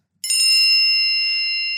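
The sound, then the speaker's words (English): A single bright bell ding, a warning tone marking five minutes of a six-minute timed turn, strikes sharply and rings on with a long, slowly fading metallic tone, clear with no voices around it. “You'll get a warning tone at five. That warning tone will sound like this.”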